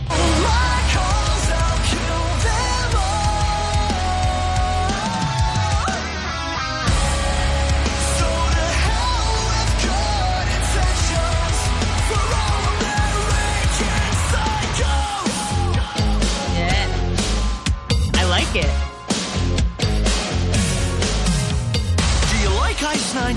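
A loud, full-band parody pop song, an homage to the film American Psycho, plays continuously, with energetic sung vocals over driving drums, bass and bright instruments, briefly dropping out around six seconds before surging back in.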